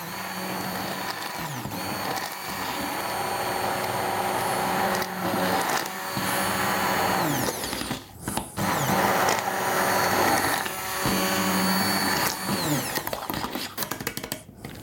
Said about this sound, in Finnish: Jos sulla on tuommoinen blenderi, niin sä voit tehdä tämän tietysti niin kuin siinäkin ihan yhtä hyvin. Varot vaan, kun on kuumaa toi, että laittaa vaikka jonkun pyyhkeen tai muuta siihen blenderin kannen päälle, niin ei käy mitään vahinkoa.